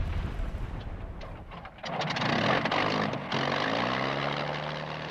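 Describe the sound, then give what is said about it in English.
A propeller airplane engine drones loudly and steadily in flight at night, swelling in intensity partway through, with a deep throbbing hum and rising whine, continuous with no voices. “In the dead of one night, she jumped out of a plane with a parachute”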